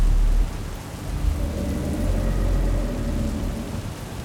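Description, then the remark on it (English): Steady rain pours down in a dense, continuous hiss, with a deep rumble of thunder underneath, loudest at the very start before settling into a constant downpour. “I looked around as best as I could see it in the rain, but with my broken headlights piercing the darkness, I couldn't really see much.”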